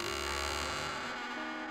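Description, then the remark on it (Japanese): An eerie sound effect of the door to the demon world opening: a sustained, buzzing electronic drone with layered humming tones, steady and fairly loud, its low rumble thinning out toward the end. No one speaks. “真っ暗な夜と真っ白な朝が出会う頃魔界の扉が不思議な音を立てながらそっと開きます”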